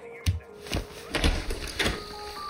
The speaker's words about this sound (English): There was a knock at the front door again. By now, I was flustered. I marched to the front door and flung it open, ready to yell some obscenities at some kids.